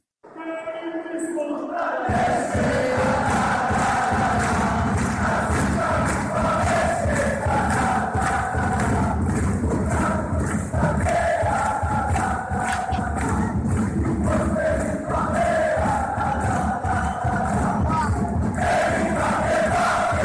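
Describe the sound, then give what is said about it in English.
A huge stadium crowd sings a fan song in unison, the massed voices loud and continuous over a roaring wash of noise, starting abruptly and carrying on steadily to the end. “Crazy, crazy, and some of the times I try to to to look after in, in internet this song, but it's impossible.”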